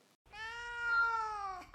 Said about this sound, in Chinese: 你是一个猫语者，而我十分确定我现在还是一只猫。喵。